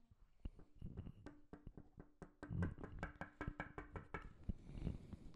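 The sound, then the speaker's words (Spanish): Rapid series of sharp knocks, like knuckles tapping on glass, repeating in an uneven rhythm for several seconds with no voices. “Se, se despiertan y escuchan un En el vidrio. Eh, ellos se despiertan y no hay nada.”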